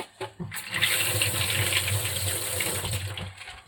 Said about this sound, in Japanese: まずはですね、バイ貝を水洗いざっとしますね。